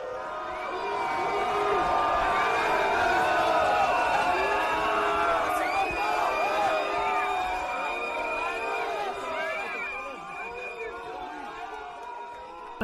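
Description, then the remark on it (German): A large crowd boos loudly and steadily, a dense mass of voices with scattered shouts rising above it, easing off slightly toward the end, as President Macron arrives on a visit to the Alsatian town of Sélestat. “einem Besuch in der elsässischen Stadt Sélestat wird Macron bei der Ankunft von der Menge ausgebuht.”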